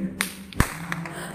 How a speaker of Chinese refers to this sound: 刚才那种噼啪的声音，是几个老人在傍晚的时候，嗯，甩鞭子的声音。没错，甩鞭子是一种锻炼身体的方式，而且它有这样的清脆的声音去跟着，也许在甩鞭子的老人那里听起来就是一种很愉悦的声响吧。